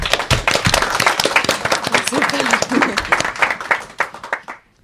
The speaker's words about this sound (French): Alors je te tends le micro et euh, je vous remercie à tous et on peut l'applaudir pour l'encourager.